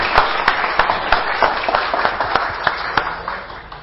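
A round of applause from a group for a woman who has just spoken, dense overlapping claps with sharper individual claps standing out, steady for a few seconds before tapering slightly.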